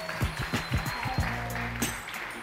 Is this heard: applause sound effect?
yes